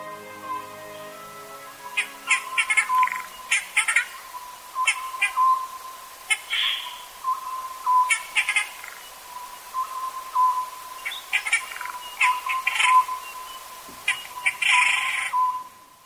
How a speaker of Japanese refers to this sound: 栃木県の北部湯西川温泉から少し山に入ると深い森と谷に包まれます夜明け前の森は生き物の息吹にあふれていました谷を挟んだ山から聞こえてきたのはこの葉ずくの鳴き声です